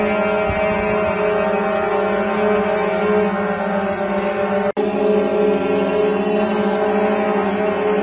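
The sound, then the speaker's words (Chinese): Many large trucks' horns blare together at a protest, the trucks blocking the road in a group, heard from a high floor of a building: a loud, unbroken drone of layered, steady tones, with a brief cut-out partway through before the honking continues. No one speaks. “但是有的，因为开着大货嘛啊，这个喇叭非常的响，就成群结队的堵住道路，并且从白天到晚上拼了命的摁喇叭扰民啊！”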